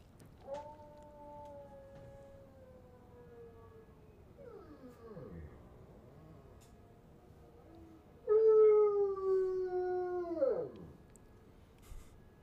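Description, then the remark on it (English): A bloodhound lying in a chair lets out long, drawn-out howls that slowly sink in pitch, with a brief wavering whine between them; the second howl is louder and more mournful, with no talking. “And then I have a third video of a bloodhound howling, like a like a legit howl.”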